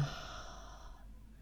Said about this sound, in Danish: 3, 4, hold vejret på toppen, 6, 5, 4, 3, 2, 1, og pust ud gennem munden.